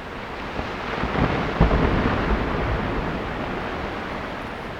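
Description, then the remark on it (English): A deep, thunderous roar of ice sheets loosening in the late morning and crashing down from a cliff onto a snow cone in Yosemite Valley. It swells into a heavy rumble heard throughout the valley, then rolls on as a steady wash of noise. No voices. “It's pretty amazing how loud those ice sheets can be when they come crashing down.”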